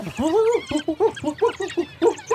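A pack of about twenty African wild dogs, hunting and killing an animal, give a quick run of short, high-pitched cries, around eight or nine yelps in a choppy, excited rhythm, clear.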